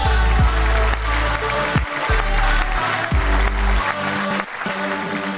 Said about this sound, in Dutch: Graag een een applaus